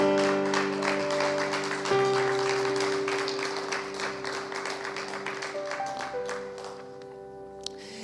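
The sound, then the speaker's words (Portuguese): A church audience applauds the Lord in a dense, steady burst of clapping over sustained keyboard chords, then the clapping thins out and fades, leaving the held notes ringing. “Quem pode aplaudir o Senhor por isso?”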